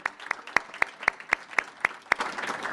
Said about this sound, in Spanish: Mauricio Dayup, un aplauso para él, mi amigo, hermoso.